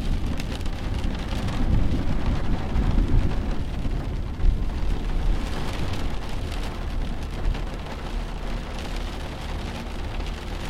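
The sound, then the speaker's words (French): Low, rolling thunder of an approaching storm rumbles continuously beneath steady rain, with a heavier swell near the middle; no voices, just the dense hiss of rainfall and deep booming of the storm. “Les oiseaux qui continuaient à chanter près de vous se taisent peu à peu, laissant place au grondement qui se rapproche.”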